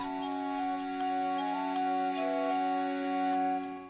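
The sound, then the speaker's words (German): Lively, dance-like organ music played by an ensemble imagining how the ancient organ sounded, with steady sustained drones beneath a moving, bouncy melody, fairly loud throughout, with no voices present. “vielleicht klang die Musik so tänzerisch, wie es sich das Ensemble … vorstellt”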